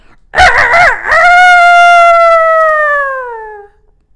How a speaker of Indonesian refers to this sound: Apa itu adik-adik? Iya. Suara ayam yang keras membangunkan Om Singa.